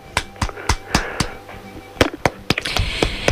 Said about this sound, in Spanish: te voy a aplaudir.